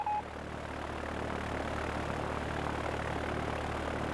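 The engine of a vintage 1939 Sea Otter propeller seaplane at Butler Sea Plane Base, near the site of the 1939 World's Fair, drones steadily and without a break, a dense, even roar with a low hum beneath it. No voices are heard.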